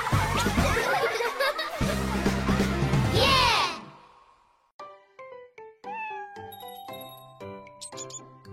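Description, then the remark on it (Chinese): A cat meows in a loud, drawn-out, wavering cry over a dense backdrop, then falls quiet before a series of light, plinking chime-like notes. “在住着一群老鼠的村子里，一只猫出现以后，老鼠们就没一天好日子过。”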